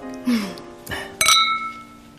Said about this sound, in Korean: 우리 짠할까요? 좋아요.